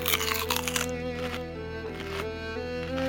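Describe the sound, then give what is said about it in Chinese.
In a told Snow White fairy tale, a crisp, crunchy bite into the poisoned apple, followed by a couple of softer chewing crunches, set over steady, sustained background music with no talking. “善良的白雪公主并不知道苹果有毒啊，马上咬了一口”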